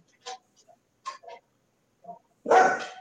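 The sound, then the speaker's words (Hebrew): A dog barks during a recording, in short bursts: a few brief, softer yaps spaced apart, then one loud, drawn-out bark to finish. “כלבים שמפריעים להקליט.”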